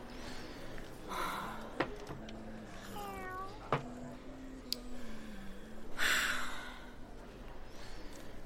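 A cat meows a few times at moderate volume against a low steady hum with occasional sharp clicks and a brief hissy burst; no one speaks.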